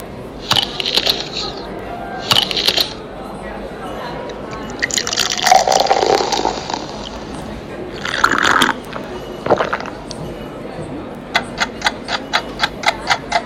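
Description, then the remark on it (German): A couple of crisp, crunchy bites into an apple, followed by apple juice pouring and gurgling into a glass, then a steady run of ticking from a sound-quiz timer. “Das Lösungswort lautet Apfelsaft. Genau, man hat erst gehört, es wird in irgendwas reingebissen.”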